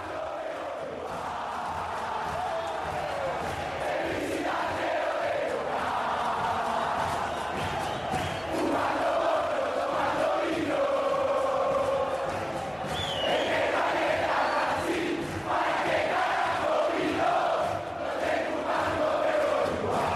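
Football supporters chant together in the stands, a dense, steady wall of many voices holding sung phrases with rhythmic swells, loud and continuous for the whole stretch.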